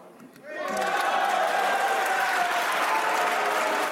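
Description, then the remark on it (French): Applause from the opposition in a parliament chamber breaks out after a brief quiet moment as deputies vote to suspend discussion of a bill, swelling into steady, sustained clapping from many hands with some voices mixed in, holding loud to the end. “Les députés votent la suspension des discussions sous les applaudissements de l'opposition.”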